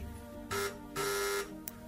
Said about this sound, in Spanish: Varias veces pulsó el timbre de la puerta 711 sin que nadie acudiera a abrir.